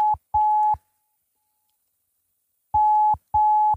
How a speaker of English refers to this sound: This is DJ Zulu phoning me. Let's find out what, what, what DJ Zulu wants.